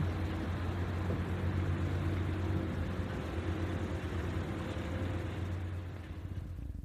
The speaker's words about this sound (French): On distinguait seulement cinq catégories de bruit. L'eau contre les roches, l'eau contre les coques, les moteurs des bateaux, les cris des oiseaux et quelques voix humaines.